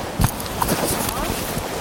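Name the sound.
horse hooves walking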